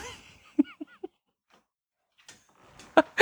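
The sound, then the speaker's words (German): A dog outside behind a closed door gives three short, muffled whining yelps in quick succession, fairly faint, followed by a brief pause and some louder rustling at the end. “that's the dog outside.”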